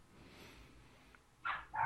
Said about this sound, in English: Forgive the dogs. I got a puppy.